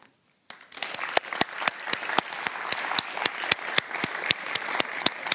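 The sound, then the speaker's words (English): Audience applause for Professor Kahneman breaks out after a brief silence, a dense wash of many hands clapping with sharp individual claps standing out, steady and fairly loud throughout. “Let's give a big applause to Professor Kahneman.”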